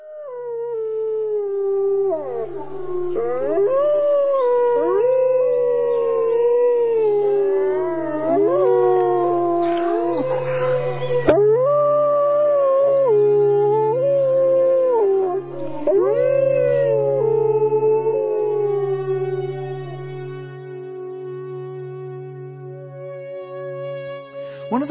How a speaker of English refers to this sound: And let me just say, if there's anything in the world of nature that is more primal and moving than the howl of a wolf pack, I have yet to hear it.